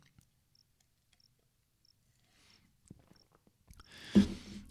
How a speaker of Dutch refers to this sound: En eh, nu bij het spreken over uitgedroogde ogen ga ik even een slok water drinken.